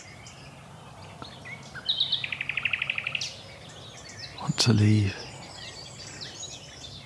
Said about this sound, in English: as much nightingale as I can fit in, even though. so many other birds are trying to drown him out.